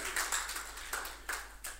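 A handful of soft hand claps, about five or six, in an uneven rhythm, each a short bright smack with no voices over them.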